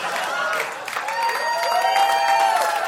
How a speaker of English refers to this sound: Wait, we're, we're clapping for Captain EO?